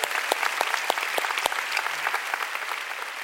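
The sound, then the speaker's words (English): An audience claps for the Lord during a church service. It is a dense wash of many hands with sharper individual claps popping out, sustained and fairly loud for the whole stretch with no voices over it. “Oh, you want to clap? Let's give the Lord a big clap.”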